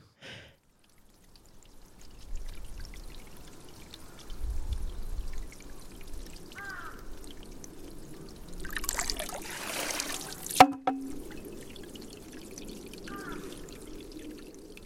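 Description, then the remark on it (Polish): Water trickles steadily in a quiet outdoor setting in the Kiyosumi garden, swells into a brief rushing pour, then a single sharp hollow bamboo knock rings out as a Japanese shishi-odoshi (sozu) tips before the gentle trickling resumes. “nazywa się to sozu albo shishidi odoshi. E, bardzo fajna e, ta konstrukcja znajduje się właśnie w tym ogrodzie Kiyosumi Tejen, którym um, przed chwilą mówiliśmy.”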